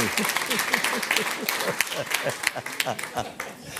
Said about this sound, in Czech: No, ano, to je potlesk.